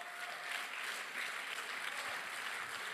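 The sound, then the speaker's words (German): Steady audience applause called for Erlangen Ansbach, a dense wash of many hands clapping at a fairly even level for the full three seconds, with no voices standing out above it. “Alle Applaus, Erlangen, Asbach, Applaus, ja, yeah, come on.”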